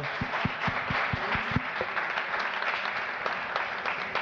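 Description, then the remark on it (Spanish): An audience breaks into applause, a dense wash of many hands clapping at once, with a few sharp individual claps standing out near the start before settling into steady, moderately loud clapping. “un aplauso a ustedes también.”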